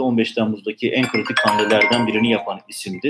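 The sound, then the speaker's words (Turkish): A man keeps talking while his own phone, left switched on, sounds an electronic ringtone or notification chime briefly beneath his voice: a short run of steady, high tones that fades within about a second. “pardon telefon açık”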